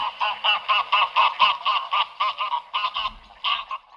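Greylag geese honk loudly in a rapid, steady series of nasal calls, about three per second, with a brief pause before the calling resumes. No one speaks.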